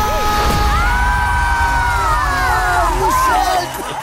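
A crowd of people in a TVA TV studio screams and shrieks together, loud and continuous with overlapping high-pitched yells, easing off slightly in the last half second.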